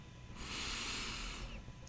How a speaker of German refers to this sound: Nimm mit mir gemeinsam drei bewusste Atemzüge durch die Nase.